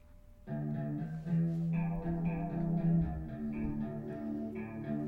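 A grunge rock song plays, led by a warbling chorus-effect guitar riff over a steady bass and drums, with dense sustained midrange tones and no vocals.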